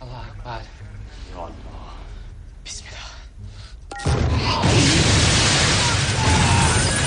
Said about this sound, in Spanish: Uno de ellos activa una bomba que hace saltar por los aires el edificio en el que se encuentran. La explosión provoca una enorme humareda negra que lo envuelve todo.